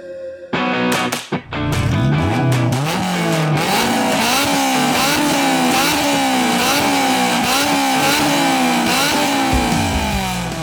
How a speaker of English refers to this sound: Those car sounds, courtesy of New Long Lore, again sending some amazing S2000 sounds into the show.